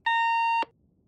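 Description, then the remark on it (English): A single electronic beep from an intercom as its receiver is picked up, steady and harmonic-rich, lasting about half a second before cutting off abruptly with a small click, clear with nothing else around it. “Julia picks up the intercom, thinking it's the phone.”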